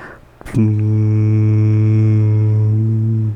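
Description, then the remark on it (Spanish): A person hums a single steady, low buzzing tone, imitating a buzzing they once heard. It holds evenly for nearly three seconds after a brief click, then stops abruptly. “Yo escuchaba como un zumbido, ahí les va, ¿eh? Yo escuchaba como esto.”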